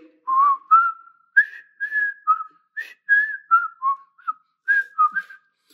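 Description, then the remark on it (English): A person whistles a TV show theme song alone, a string of clear notes in a bouncy melodic phrase, some held and some short, with brief gaps between them and no talking. “you see, I'm struggling up here whistling, but you all will remember what TV show that's the thing song two, It's embedded um, in our memories, embedded in our minds.”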